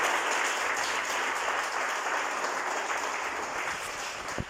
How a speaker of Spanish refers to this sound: Denle un aplauso a Cristo Jesús, por favor.